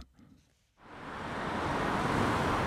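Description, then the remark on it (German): After a brief quiet moment, a broad whooshing roar swells up and holds steady as cars rush one after another through the village of Netzel at 11 in the morning, outside rush hour, loud and continuous. “Und gleich rauscht ein Auto ums andere durchs Dorf Netzel.”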